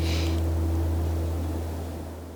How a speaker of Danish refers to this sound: Hvis du kan høre lidt susen i baggrunden, så er det fordi, jeg sidder tæt på Vesterhavet og da jeg kan se bølgeskvulp og brusende hav herfra, hvor jeg sidder.